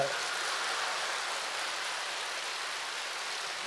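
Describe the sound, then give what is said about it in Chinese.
An audience at a lecture on Buddhism claps in a steady, dense wash of applause that holds at an even loudness for several seconds, with no individual claps standing out and no voices over it. “讲的这么好，掌声这么少”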